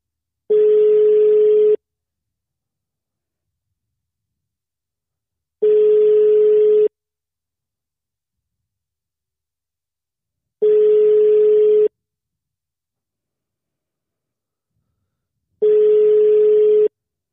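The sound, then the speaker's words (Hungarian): A phone ringback tone, heard while calling someone and waiting for them to pick up, sounds four times, each a steady single-pitched hum lasting about a second, separated by roughly four seconds of silence, clear and alone with no talking. “És most már azért kell izgulni, hogy fölvegye a telefont.”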